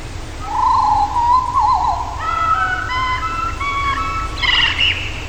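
A blackbird sings a clear, whistled melody of distinct pitched notes, stepping through a tune-like sequence resembling a children's song before a brighter trill at the end, over a steady low outdoor rumble.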